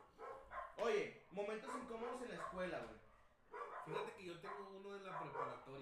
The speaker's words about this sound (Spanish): Momentos incómodos y otra vez una disculpa por los perros.